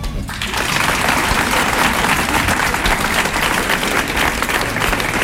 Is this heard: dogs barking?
no